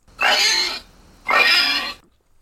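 A pig oinks and squeals twice, each call loud and about half a second long, with a brief pause between them and no voices.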